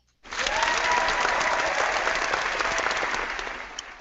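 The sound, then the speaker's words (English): Steady applause from a studio audience fills the space, starting suddenly and holding at a dense, even level before tapering slightly at the end, with no one speaking over it. “our, studio audience here is uh, clapping for any reason.”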